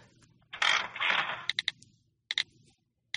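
A restaurant-finding phone app's slot machine effect, triggered by shaking the phone: a brief rattling whir, then a handful of sharp, bright clicks in small clusters, like reels clacking to a stop. Fairly quiet, with no talking.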